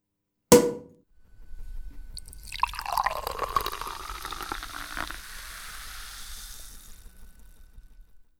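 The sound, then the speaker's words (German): A sharp tap at the start, then a drink is poured into a glass, the tone rising as it fills, with a steady fizzing hiss that fades out. “Jetzt stoßen wir gemeinsam an Du kannst dir ein Champagner holen, kurz auf Pause drücken oder auch ein Wässerchen und dann stoßen wir gemeinsam an auf das neue Jahr 2021.”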